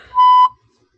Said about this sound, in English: That's that was my censor beep. That's the wrong one.